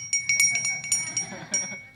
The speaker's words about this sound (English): Do you guys remember church bells? I brought one.